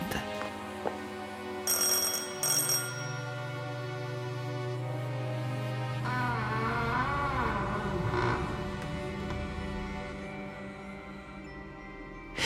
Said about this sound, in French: Il leva le bras et appuya sur la sonnette.